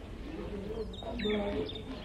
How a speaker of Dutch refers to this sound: Dat zijn vogels in kooien. Jij bent helemaal van goud. En jij bent rood goud. Hm. En jij bent bruin goud. En jij... Jij bent de mooiste. Jij bent van... Eh, van paars goud. Want jij bent een pauw. Dag gouden vogels.